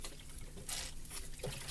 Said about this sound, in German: Und deswegen trinke ich nämlich immer Wasser zwischendurch, ja. damit das auch schön fluppt hier.